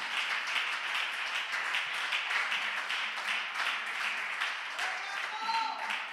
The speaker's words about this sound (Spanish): Claro que sí, dale un fuerte aplauso.